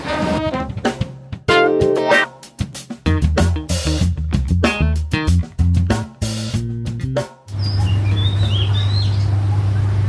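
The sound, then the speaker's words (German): Several seconds of music give way to birds chirping in the morning, with scattered high tweets over a steady low rumble, moderately quiet. “Und zwischendurch werde ich immer mal so ein paar ähm, Tonaufnahmen machen, wenn ich irgendwie Vögel, Straßenlärm oder so eine Geschichten halt habe, die ich denke, die ganz interessant sind.”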